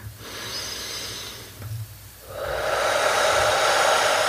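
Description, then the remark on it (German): A deep inhalation taken as one of three or four deep breaths in a breathing exercise: a soft airy hiss that swells partway through and holds steady, loud and breathy, with no talking. “Und dann nimm jetzt mal drei, vier tiefe Atemzüge, also einatmen”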